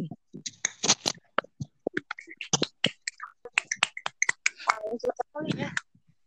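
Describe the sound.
A small group claps their hands in a quick, uneven burst of sharp, crisp smacks lasting several seconds, with a few voices calling out among the claps.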